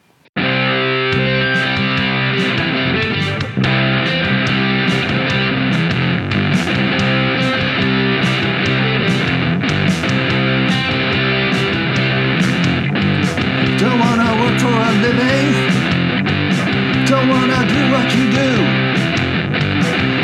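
A loud punk rock song plays at a steady, driving level throughout, with dense distorted guitars and sharp, regular drum hits filling the mix from start to finish.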